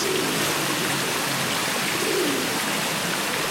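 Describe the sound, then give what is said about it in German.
Steady splashing of the fountain in front of Neukölln town hall on Karl-Marx-Straße fills the scene, with soft coos of dozens of pigeons pecking around it rising faintly above the water a couple of times. No one speaks. “Vor dem Rathaus Neukölln plätschert der Brunnen. Dutzende Tauben picken drumherum.”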